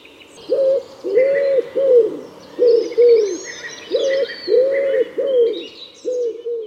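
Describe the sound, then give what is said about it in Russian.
A wood pigeon, a large forest pigeon often mistaken for an owl, coos in a steady run of soft, hollow, rounded notes grouped into rhythmic phrases, while smaller birds chirp and twitter faintly in the background. “Я сегодня услышал Вяхеря, это такой крупный лесной голубь, и многие, когда его слышат впервые, путают его с совой.”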